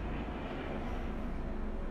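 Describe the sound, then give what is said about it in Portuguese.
A steady, droning helicopter engine rumble fills the whole stretch, thick with low-end energy and unbroken, as a helicopter passes overhead, with no talking over it. “Peraí que tá passando um. Passando helicóptero.”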